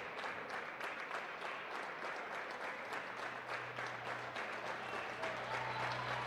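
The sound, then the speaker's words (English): A large Marshfield home crowd, its student section in all-white t-shirts, cheers and applauds steadily as the Tigers' starting five are announced, dense clapping mixed with roaring voices, swelling slightly toward the end. “Tigers will get a big home welcome as their starting five are announced.”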